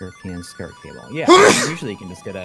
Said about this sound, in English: Oh, bless you.